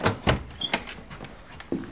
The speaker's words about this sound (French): Je sais que c'est la grande clé. J'ouvre la porte.